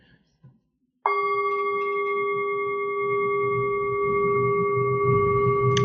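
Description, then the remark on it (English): A small gong bowl is struck once and rings on with steady, sustained tones that hum evenly for several seconds, clear, with faint low background rumble beneath. “So, for an example of tendrel, um, he uses the example of a bell, but I have a little gong here.”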